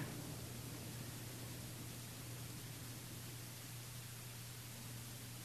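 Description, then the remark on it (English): A soft, steady rush of wind with no gusts or pauses, a constant low hiss filling the background with a faint low hum beneath it. No one speaks. “you may notice that the room full of us does settle down and that can almost assist each of us in finding our own place to rest as you hear and notice that the group is listening to its own experience, listening to the wind.”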